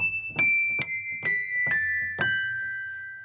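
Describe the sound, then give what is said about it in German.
Five bright, ringing glass tones as the old hammers of a piano, linked by ropes to its keys, strike different wine glasses placed inside the piano case, each with a sharp attack and a long, clear sustain, forming a slow descending sequence with no talking. “Schon klopfen die Hämmerchen an das Glas.”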